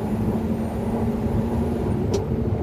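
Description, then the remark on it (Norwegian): A heavy Unimog diesel truck engine with 1380 newton-metres of torque drones steadily under load, a deep rumbling hum with a low tonal whine, plus a brief turbo hissing burst near the end. “Den høres ikke helt ut som en E400 eh, e diesel.”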